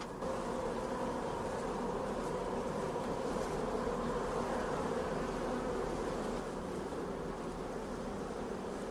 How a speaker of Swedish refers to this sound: Jag tycker det nästan låter som en flugsvärm på, på avstånd eller någonting. Eller bin kanske. Du hör detta.